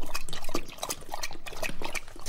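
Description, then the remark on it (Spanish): A dog named Apolo laps water, a quick wet splashing rhythm of tongue strokes that continues steadily for a couple of seconds with no voices. “Creo que Apolo tiene más sed que yo.”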